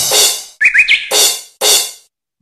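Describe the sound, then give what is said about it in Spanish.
A small bird chirps three quick, bright, rising tweets in a row, set between loud, hissy cymbal crashes that come before and after, in a sound memory game. “Plato pajarito plato plato.”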